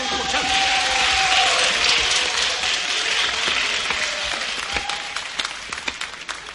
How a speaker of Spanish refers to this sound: Un aplauso para nuestros primeros